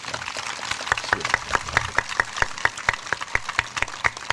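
Audience applause: a steady wash of clapping with sharper, evenly spaced claps standing out in a quick regular rhythm, holding at a moderate level for several seconds, with no one talking over it.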